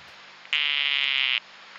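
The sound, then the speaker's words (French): A single sustained buzzing trill from a dyeing poison dart frog (Dendrobates tinctorius), a poisonous frog, loud, lasting almost a second over quiet background hiss, with no talking. “La dendrobate atteinturée, c'est-à-dire c'est euh, Dendrobates tinctorius, qui est une grenouille euh, vénéneuse.”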